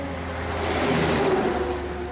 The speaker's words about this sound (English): Oh, something's gotta be done about those trucks.